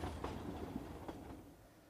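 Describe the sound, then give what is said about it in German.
A train rumbles steadily with low mechanical noise and a few soft rhythmic clanks, a locomotive rolling slowly into the station of a small village, at moderate loudness. “Als die Lokomotive Percys Ziel erreicht hatte und langsam in den Bahnhof des kleinen Örtchens tuckerte”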